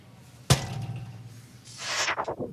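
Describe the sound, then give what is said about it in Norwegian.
A school locker door bangs open with one sharp, loud metallic crack and a low ringing hum, followed a second later by a burst of rattling, clattering metal that quickly dies away; in the TV show Skam, Even bangs open Isak's locker. “Even dunker opp skapet til Isak.”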